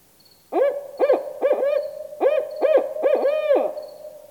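A barred owl gives its rhythmic 'Who cooks for you? Who cooks for you all?' hooting call, a series of loud hoots with rising and falling inflections, about eight notes grouped in a cadence, with no talking.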